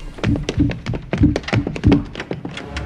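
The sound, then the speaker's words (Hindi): Rapid, heavy footfalls thud overhead in a quick uneven rhythm as someone runs on the roof of a house, each dull low thump landing loudly with no voices present. “ये उसके घर की छत पर किसी के दौड़ने की आवाज थी पर आंख खोलते के साथ ही वो आवाज बंद हो गई यह सिलसिला काफी देर तक चलता रहा आंख लगती तो आवाज आती और आंख खुलती तो आवाज बंद हो जाती है”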